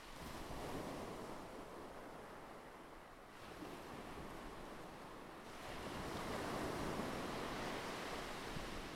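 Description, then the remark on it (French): Ocean waves wash steadily onto a beach in a broad, continuous roar, swelling louder near the end as a new wave breaks. No voices, just surf and a little wind. “Respire et laisse ton corps se détendre en relâchant toutes les contractions, toutes les tensions au son des vagues.”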